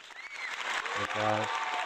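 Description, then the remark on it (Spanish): A burst of canned applause sound effect, dense steady clapping filling the whole couple of seconds, with a short tonal vocal-like whoop rising out of it midway. “Eh, sonidos, este, falsos de aplausos.”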